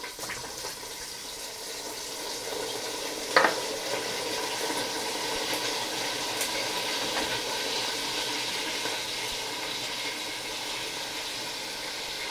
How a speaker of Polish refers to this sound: Mięsko należałoby już podlać, więc biorę durszlak, opieram go na garnku i swobodnie zalewam mięso sosem z pomidorów.